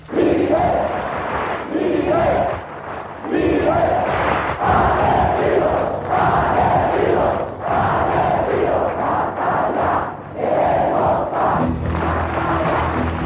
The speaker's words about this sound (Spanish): De forma inmediata, millones de españoles en todo el país se manifestaban.